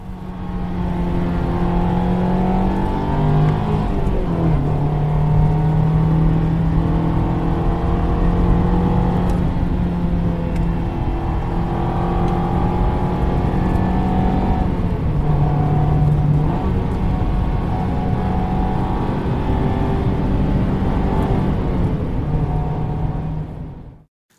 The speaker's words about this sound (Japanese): ほうほうで続いてはインダクションサウンドエンハンサー付きありありの音を聞いてください。